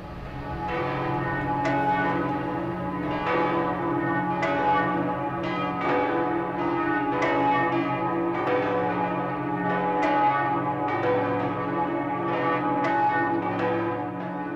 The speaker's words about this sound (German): Ein Stockwerk höher hängt die Kunigundenglocke. Sie hat einen sehr archaischen Klang.